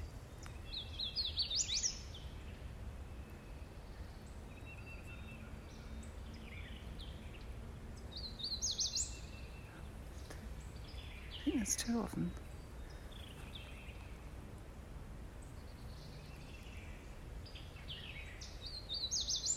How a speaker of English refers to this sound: it is the sound of spring warblers from Huntsville State Park in Texas. Spring warblers in Huntsville State Park.